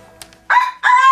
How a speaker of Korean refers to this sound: 아, 깜짝이야. 뭐야? 내 잘못 들은 거 뭐야? 닭소리.